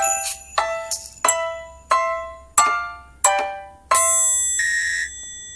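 A cheerful, tinkling bell-like jingle with a carefree, southern-island feel: a sequence of about seven bright, ringing chimed notes in a bouncy rhythm, ending on a shimmering sustained tone, with no talking.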